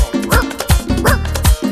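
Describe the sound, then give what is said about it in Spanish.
A person imitates a dog answering the phone with barking: four quick, loud bark-like yelps in a steady rhythm with no other talking. “Lo llama por teléfono y de esta manera el perro le contesta.”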